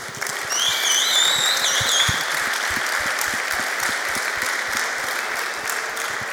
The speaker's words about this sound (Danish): endnu et fortjent bifald for, for den scoring.